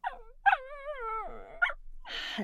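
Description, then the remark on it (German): A fox barks and calls: a short yelp, a long wavering whine, another sharp yip, then a harsh raspy burst, with no voices. “Und das Infotier diese Woche ist das beste Infotier von allen. Muss man einfach sagen, es ist der Fuchs.”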